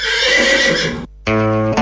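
A loud horse neigh: a long, harsh whinny, then a brief pause and a second tonal, quavering whinny with clear harmonics that cuts off abruptly. No talking.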